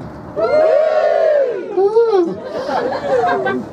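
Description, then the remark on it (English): A crowd of women in an audience cheers and whoops together in high, overlapping voices, sustained and fairly loud for a few seconds, with some chatter mixed in. “can we get the ladies to all cheer, please?”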